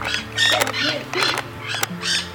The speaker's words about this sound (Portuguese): Perdão! Que Pardal!